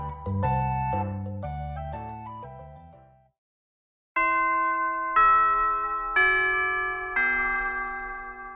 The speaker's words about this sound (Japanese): チャイムも鳴りましたのでそろそろ活動のまとめをしていきたいかと思いますチャイム聞こえたチャイムねあそこのどこそこの学校のね